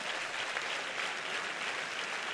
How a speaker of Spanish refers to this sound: Si ese es el aplauso, dáselo bien.